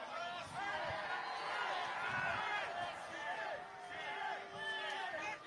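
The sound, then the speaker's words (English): A large crowd boos loudly and continuously, with scattered cheers and shouts mixed in, a dense wall of many voices that holds steady for several seconds. “There's some cheering. It's mostly booze.”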